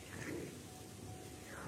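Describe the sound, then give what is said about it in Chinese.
Rain falls steadily, a soft continuous hiss of drops spread across the whole clip with a faint low rumble underneath and no voices. “床上听着雨声，睡觉会很舒服的呢。”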